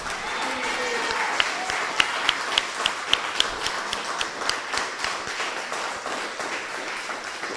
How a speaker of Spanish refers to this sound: Otro aplauso para Mashiach.